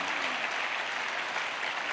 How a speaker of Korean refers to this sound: 예, 우리 전통 음악으로 귀한 찬양을 해주신 우리 이, 어, 큰빛 찬양팀에게 큰 박수로 다시 한번 예, 격려해 주시기 바랍니다.